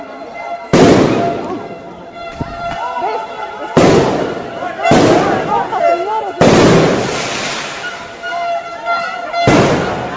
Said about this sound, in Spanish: Tengo otra muy cortita que también quisiera compartir, donde ya se escuchan detonaciones de eh, aparentemente la policía.